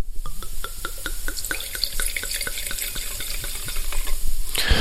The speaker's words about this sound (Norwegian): Så i dag så skal vi til en vin som heter Cavalier Peppe Bianco di Bellona 2019. Eh, og er da på denne snodige Coda di Volpe Bianco-druen. Og eh, dette her er eh, Dette er første gang, så det skal vi se. Jeg skal helle oppi glasset her.